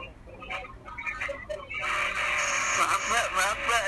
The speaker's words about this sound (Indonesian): suara motor lewat aja motor apa sih iya nggak apa-apa mas wajar lah ya kan kita juga lagi ada di tempat di luar kayak gini nggak masalah